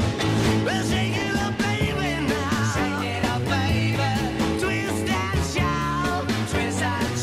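An upbeat 1960s-style rock song plays loud and close, with raw, shouted vocals over a driving bass line, steady drums and full band backing throughout.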